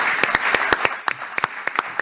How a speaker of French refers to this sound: Applaudissements pour Lionel Séropian